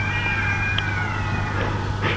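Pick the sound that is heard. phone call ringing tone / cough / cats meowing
cats meowing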